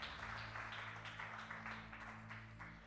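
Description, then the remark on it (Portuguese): An audience at a church service applauds the Lord with steady, sustained clapping that fills the whole moment, over a low, constant electrical hum. “Damos um aplauso ao Senhor por sua palavra.”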